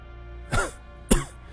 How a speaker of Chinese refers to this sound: 父亲听我这话，刚想发作，就被爷爷拦住。爷爷咳嗽了两声